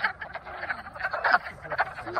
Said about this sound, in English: Yeah, frogs that sounded like aliens. It was a warm day and they were coming out of their winter slumber.